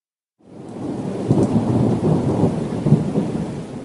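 After a moment of silence, a rainstorm breaks out outside: heavy rain sets in with a steady, dense hiss while low thunder rumbles and swells beneath it. No voices are heard.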